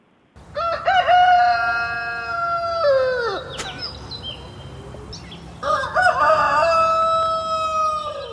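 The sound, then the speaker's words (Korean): A rooster crows twice, loud, each cock-a-doodle-doo a long strained call, with a short pause of background noise between the two crows. It is played as the reference recording for a rooster-imitation contest. “자 레퍼런스를 한 번만 다시 들어보고 가겠습니다.”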